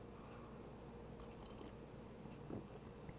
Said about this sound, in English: Let me get a sip of coffee here.